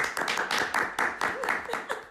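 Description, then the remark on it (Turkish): A short burst of hand clapping from a few people, quick and uneven, moderately loud, lasting about two seconds with no talking. “bir alkış hak etti.”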